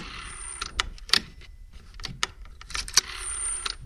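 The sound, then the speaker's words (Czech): The dial of a 20 to 30-year-old rotary telephone whirs as it is turned with a finger and spun back, a buzzing mechanical rattle at the start and again near the end, with a few sharp clicks in between, fairly quiet. “A určitě pro ně musí být krásné si tady vrazit ten prstík a udělat.”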